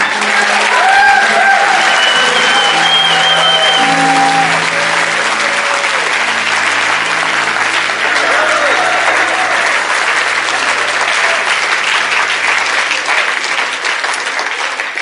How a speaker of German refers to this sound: Lass uns unserem König einen richtigen, herzlichen Applaus geben.